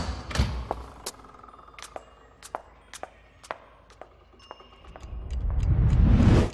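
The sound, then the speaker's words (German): Bells ring in a quick, irregular series of sharp metallic strikes, some leaving a faint high ringing tone, before a swelling rush of low noise takes over at the end. “Die Glocken waren noch nicht verklungen, als Shiro bereits wie aus dem Nichts in Nanukas Zimmer erschien.”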